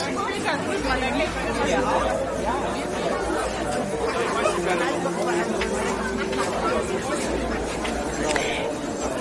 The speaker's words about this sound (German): Und habt ihr es erraten, wo wir gerade sind? So klingt der maritime Weihnachtsmarkt.